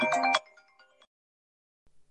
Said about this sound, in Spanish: y así, con este magnífico sonido del móvil de Fran, es como acabamos esta primera parte de la entrevista que continuamos en cuatro segundos.